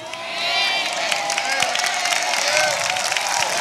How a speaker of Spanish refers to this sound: Un aplauso.